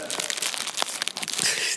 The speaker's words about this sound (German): die ist, die ist scheiße, die Lufti. Die ist, die ist gut zum Polstern, also Lufti, ne? Luftpolsterfolie. Der hat, der hat nur Puff gemacht. Genau, die hat nicht mal richtig laut geknallt.